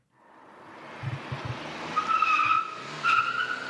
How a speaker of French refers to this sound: Dérapage de voiture.